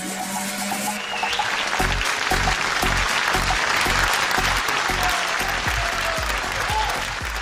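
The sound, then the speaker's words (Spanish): A crowd applauds steadily, dense clapping filling the whole stretch at an even, fairly loud level, with some low rhythmic thumps underneath and no speech over it, welcoming a young skier from Tierra del Fuego with Olympic prospects. “Lo vamos a recibir con un gran aplauso a nuestra joven gran promesa fueguina con proyección olímpica.”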